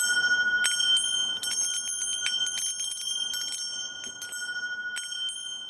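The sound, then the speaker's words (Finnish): Three small bells ring in a quick, irregular series of bright, high-pitched dings, their tones overlapping and lingering with a shimmering ring, fairly loud with no talking. “Tässä on kolme kelloa vaan.”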